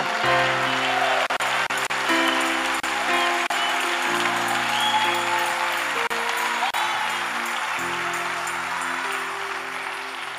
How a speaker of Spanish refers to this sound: el aplauso para él, dáselo.